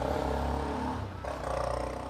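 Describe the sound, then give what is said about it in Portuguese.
A noisy motorcycle passes by, its loud, rough engine roaring steadily for about two seconds, dipping briefly in the middle before surging again. No one speaks. “Só porque eu comecei a gravar passou a porcaria de uma moto barulhenta.”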